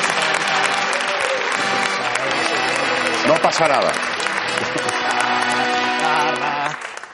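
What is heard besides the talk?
audience applause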